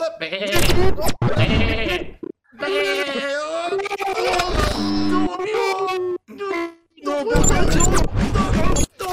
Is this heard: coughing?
no